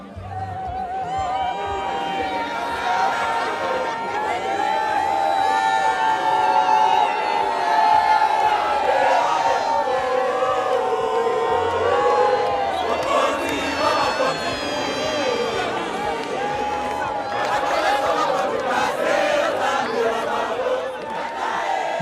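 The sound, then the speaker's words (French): A huge crowd of over a million people cheers and shouts continuously at Pope Francis's open-air mass at Ndolo airport on a Wednesday morning, a dense, loud roar of many voices with rising whoops and ululating calls layered on top, sustained for the whole stretch without pause. “Plus d'un million de personnes y ont assisté, selon les autorités. Beaucoup d'engouement et de ferveur”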